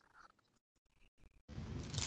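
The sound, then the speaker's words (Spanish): Soft chewing and biting noises on pizza, with short crunchy bursts separated by brief pauses, then a louder sustained crackling crunch near the end. No one talks. “déjame tragar mi pizzita en paz.”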